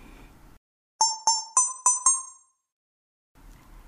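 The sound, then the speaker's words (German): A short, bright jingle of five quick chiming notes, evenly spaced and slightly rising, each ringing out and fading, played alone between moments of silence, signalling the start of a timer for a writing exercise with pen and paper. “Um den Anfang dieses Timers irgendwie zu signalisieren, wann das irgendwie losgehen soll oder so, dann wird Anja dann später noch ein bisschen einen kleinen Musikjingle einspielen”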